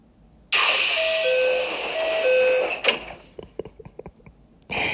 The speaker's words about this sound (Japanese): このねドアの音のピンポンピンポンっていうのを結構感覚とかこだわって一回ね作り直していただいたりして完成したのすっごく嬉しいです大事にね使っていきたいと思います